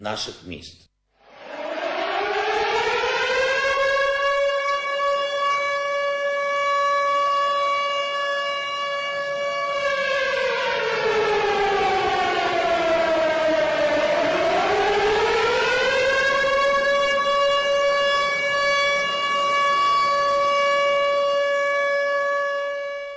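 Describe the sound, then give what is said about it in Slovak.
An air raid siren in Ukraine, as heard in Ukrainian cities, wails loud and steady for about 20 seconds, its tone dipping low midway before climbing back up to a sustained howl, without any talking. “Budete počuť to, s čím žijeme posledných 25 dní. Zvuk, ktorý sa udomácnil vo všetkých našich mestách.”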